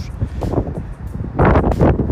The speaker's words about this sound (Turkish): Rüzgarın sesini duyarsınız. Oldukça hızlı ve sert esmektedir. Kaç gücünde eser bilmem şu anda.